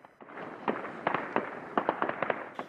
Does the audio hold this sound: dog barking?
no